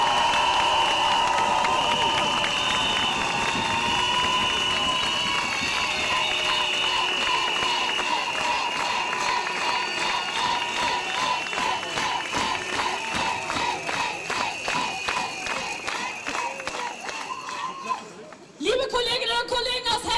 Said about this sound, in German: Applaus